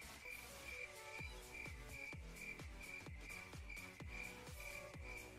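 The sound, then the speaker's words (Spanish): A cricket chirps steadily in a regular, repeating rhythm through the background, with deep, pulsing low thumps underneath and no one speaking. “Se ha escuchado un grillo de fondo.”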